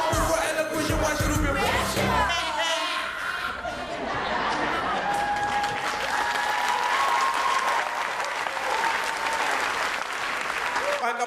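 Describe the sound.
Loud, sustained applause from a crowd for a DJ at the opening of the Wisher Wasje Wasje Show, dense clapping filling the whole stretch, with some cheering and voices mixed in near the start before settling into steady clapping.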